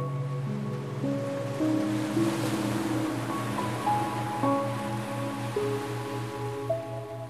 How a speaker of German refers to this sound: zusammen mit dem Rauschen des Meeres und den leisen nächtlichen Geräuschen um euch herum ergibt sich eine wundervoll beruhigende Klangkulisse, die dich sanft einhüllt.